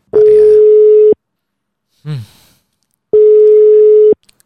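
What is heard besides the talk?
telephone ringback tone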